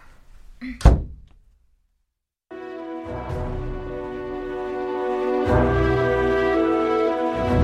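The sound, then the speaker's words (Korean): A single solid room door thuds shut near the start as two sisters leave the room, a short heavy knock that dies into silence before sustained music swells in and carries on to the end. “자매는 자리에서 유유히 일어나 방을 나섰다. 방문을 닫기 직전에”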